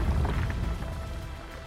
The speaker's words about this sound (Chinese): 最后，一波波震动传来，狮子头转了回去，大门敞开来。